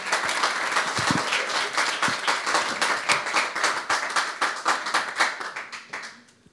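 An audience applauds to welcome a speaker, a dense wash of clapping hands with individual claps standing out rhythmically, holding steady before fading out at the end.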